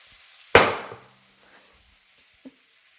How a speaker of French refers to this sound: Si vous avez de la cardamome en gousse comme moi, vous prenez trois gousses et vous allez les exploser avec le cul d'une casserole sur une planche.